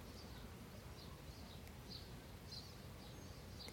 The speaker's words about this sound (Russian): пока ты слушаешь пение и представляешь полет жаворонка